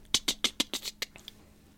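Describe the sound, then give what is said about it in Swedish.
A voice mimics a woodpecker's pecking with a quick burst of about eight sharp, clicky taps in a steady rhythm, followed by a couple of fainter trailing taps. “Eller typ hackspett. Ja, den bara...”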